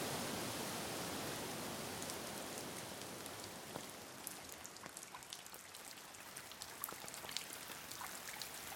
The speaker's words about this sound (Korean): 질풍이 한바탕 불자 이제 성겨진 빗방울들이 흩날렸다.